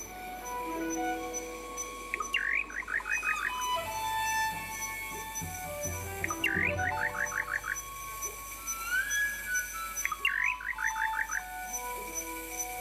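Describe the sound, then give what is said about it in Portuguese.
Birds chirping at dusk: a short call, a quick rising note followed by a rapid run of chirps, repeats three times at steady intervals over a dense, constant evening hum of background ambience. “Piam perto nas sombras aves agoireiras,”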